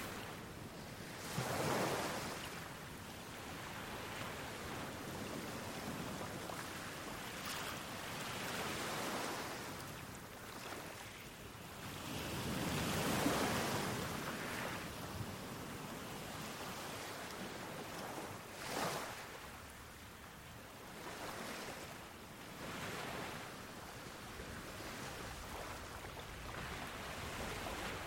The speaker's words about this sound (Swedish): Du står där i vattenbrynet och upplever rytmen i vågornas sakta skvalpande. Stenarna som drar sig undan under dina fötter.